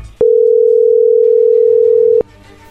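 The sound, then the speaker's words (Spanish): A steady telephone dialing tone holds a single mid-pitched hum for about two seconds as a phone call is being dialed, starting and stopping abruptly, with faint low background noise before and after. “no haga ruido, ahí se está marcando.”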